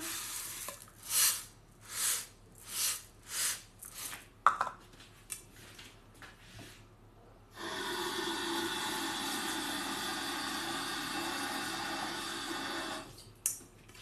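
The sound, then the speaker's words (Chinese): Several rhythmic scraping strokes in a pan give way to a steady, hissing sizzle of food frying that holds for about six seconds before cutting off, followed by a brief clatter. “开电台做饭试试”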